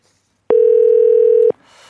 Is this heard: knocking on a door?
no